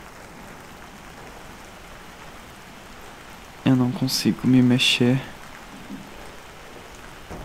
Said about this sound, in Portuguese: Trovões, vento, chuva. Estas são as três coisas que escuto. Os três últimos sons que serão registrados.